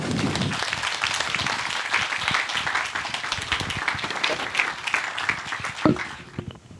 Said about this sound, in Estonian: teeme suure aplausi.